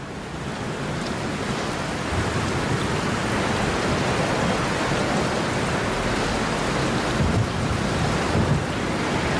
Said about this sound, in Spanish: No te puedo creer cómo llueve, gorda. Del Amarok hasta la puerta del DEPA me mojé todo.